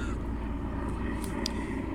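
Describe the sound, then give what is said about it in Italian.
A heavy-lift cargo helicopter drones overhead, a steady, loud low rumble with a faint throbbing pulse that fills the whole moment without letting up. “Ah, quello è l'elicottero come si chiama quello che trasporta i pesi.”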